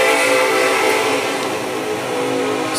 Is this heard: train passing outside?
yes